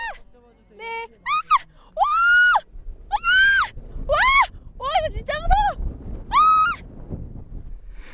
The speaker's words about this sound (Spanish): Pero su trineo, además de deslizarse a toda velocidad, se puso a dar vueltas como una peonza. Al no poder controlar la situación, sin evitarlo comenzó a gritar.